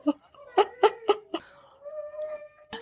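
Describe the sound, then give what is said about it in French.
A female dog whimpers: a handful of short, pitched squeaks in quick succession, then one drawn-out, steady whine that fades, ending with a faint click. “ouais, elle vient, elle vient de couiner.”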